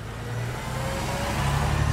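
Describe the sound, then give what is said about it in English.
A school bus engine rumbles steadily, its low drone growing slightly louder and rougher as it rolls up to a stop at a bus stop drop-off at the end of the school day. No voices are heard. “Pulling up to your bus stop drop off at the end of the school day can cause a lot of anxiety.”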